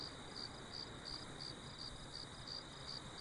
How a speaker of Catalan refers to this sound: No se sent res. Tan sols els grills.